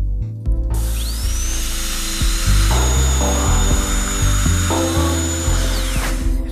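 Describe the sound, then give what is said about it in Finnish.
A high-pitched dental drill spins up with a rising whine, holds a steady piercing whir for several seconds over a low rumble, then winds down near the end. “Hei, soitetaan kerran vielä toi poran ääni tähän.”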